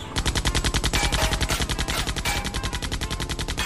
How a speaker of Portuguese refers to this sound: O, o pessoal nos carros, cada um tem o seu motorista e uma, uma pessoa com metralhadora na janela, atirando contra o ah. carro de vocês.